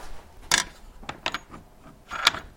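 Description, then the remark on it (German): A grinding machine shortens an organ pipe by a fraction of a millimetre, six tenths, because the pipe is still slightly too low in pitch. It works in several short, harsh, hissing bursts, spaced irregularly with quieter mechanical rattling between them, and no one speaking. “Mit einer Schleifmaschine muss er sie ein wenig kürzer machen, nur um einen Millimeterbruchteil.”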